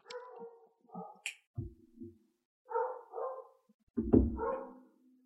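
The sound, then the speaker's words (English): Three dogs bark over one another in loud, overlapping bursts, mixing high yappy barks with a deeper, gruffer bark, with no one talking. “They're aligned in their action of making as much noise as possible.”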